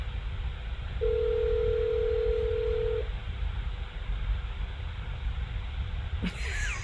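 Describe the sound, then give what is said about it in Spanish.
A cellphone rings once with a steady electronic tone lasting about two seconds, heard over a constant low rumble, followed by a brief click near the end. “Oigo, el celular repicando.”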